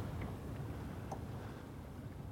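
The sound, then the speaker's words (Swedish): Gentle, glittering, uneven waves slosh against a boat's hull out on a bay of a lake in a soft, continuous wash, with a low rumble of lukewarm wind over open water as clouds pass, and no voices. “De här glittrande ojämna vågorna som liksom får lite svall på sig nu. Det skvalpar mot eh, båten här ute på fjärden.”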